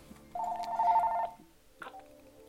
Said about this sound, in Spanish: y escuchamos el teléfono de la casa